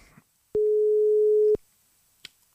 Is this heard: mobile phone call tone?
yes